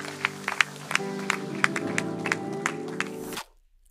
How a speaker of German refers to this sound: Lass uns einen Applaus geben, denn Menschen haben ihr Leben heute Jesus gegeben.